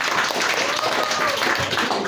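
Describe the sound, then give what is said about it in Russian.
A dense, steady wash of audience applause fills the whole stretch, many hands clapping together at an even, fairly loud level, with faint voices blended underneath. “Э, аплодисменты.”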